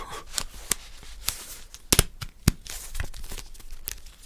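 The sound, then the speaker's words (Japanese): Toothpicks being handled, with a series of sharp dry clicks and light rustling, irregular taps scattered over a few seconds, crisp and bright with no voices. “この爪楊枝の音がね、とってもいいと思うんだけど”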